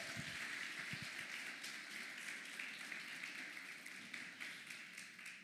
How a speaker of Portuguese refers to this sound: E todos que são filhos, vamos aplaudir ao Senhor nessa noite.